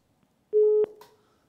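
A single steady telephone line tone, like a busy or call-connect beep, sounds loudly for about a third of a second, bracketed by soft clicks and followed by a faint fading ring, as hosts wait for a listener to phone in.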